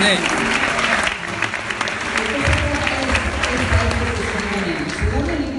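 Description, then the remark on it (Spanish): An audience bursts into sustained applause, a dense, steady wash of clapping lasting several seconds, with voices audible underneath the noise throughout. “Por favor, dale un fuerte aplauso este,”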